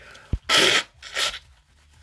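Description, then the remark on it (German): A sudden sneeze from a person with hay fever bursts out loud and breathy, followed by a second, softer exhaled gust, with brief thumps before and after; nobody speaks. “Ist mir schon zum zweiten Mal passiert, dass ich im Podcast so niese ohne Ankündigung.”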